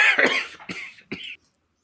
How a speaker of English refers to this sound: I, I was coughing, and that's why I trying to press the mute